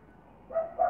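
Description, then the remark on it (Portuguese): A fierce female dog named Alice barks twice in quick succession at home, two short muffled woofs against a quiet background hum. “E tem uma cachorra brava chamada Alice.”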